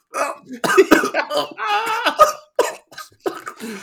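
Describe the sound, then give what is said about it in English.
A chesty, phlegmy cough breaks out in several rough bursts, fairly loud, with harsh throaty rasping between the fits and no talking. “I had one little chesty cough I had to get out.”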